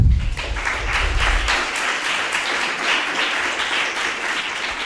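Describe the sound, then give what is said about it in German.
Steady applause from an audience for the two speakers, a dense wash of many hands clapping at a constant, fairly loud level throughout with no voices standing out. “Ich finde, ähm, einen großartigen Applaus ähm, haben die beiden Referenten verdient.”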